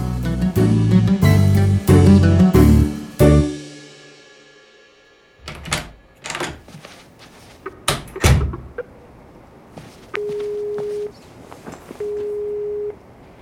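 A door opens as a visitor arrives, with a cluster of clunks and rattles, after a run of ringing chime-like tones and a pause. Two steady electronic beeps follow. No one speaks.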